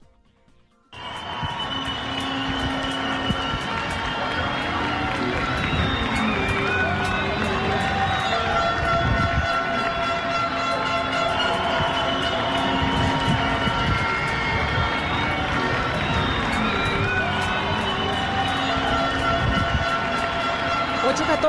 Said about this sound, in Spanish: Escuchemos los aplausos.